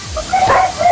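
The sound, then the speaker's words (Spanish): A dog barks in a couple of short, sharp bursts, moderately loud, over a faint background hiss. “perro ladra”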